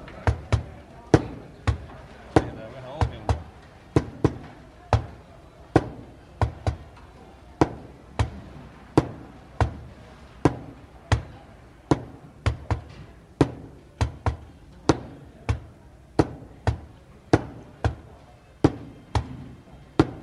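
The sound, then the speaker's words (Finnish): Hand stamps thump down on mail in a brisk, uneven rhythm, dozens of sharp, loud strikes, some landing in quick doubles, over a low murmur of background voices; real hand postmarking recorded in 1966 at the Helsinki main post office. “Se oli aidolla käsin, käsileimaimilla tehty vuonna 1966 äänitetty Helsingin pääpostista.”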